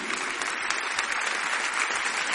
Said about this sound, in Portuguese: Se você recebe, dá um glória a Deus e uma forte salva de palmas para Jesus.